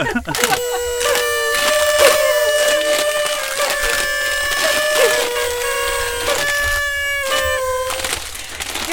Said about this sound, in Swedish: Jag tycker vi avslutar där och så tar vi upp de här partytutorna och så säger vi tack så jättemycket för att ni kom hit och så blåser vi i tutorna. Blås dem lite ditåt.